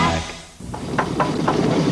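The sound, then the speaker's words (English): A car engine knocks: after a brief dip, a low running rumble starts with a string of sharp, loud metallic knocks repeating at a quick, uneven pace. “That knocking means another engine needs its knocks knocked out.”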